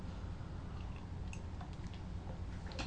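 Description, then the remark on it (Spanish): A long slurping sip of hot, freshly brewed, bitter black coffee without sugar: a steady wet hiss lasting a few seconds, dotted with small liquid clicks and smacks, with no voices. “Me di un sorbito largo, largo.”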